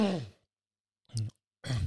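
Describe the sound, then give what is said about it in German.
A person clears their throat and gives a couple of short, rough coughs, separated by brief pauses, with no talking. “Kleine Corona-Husti”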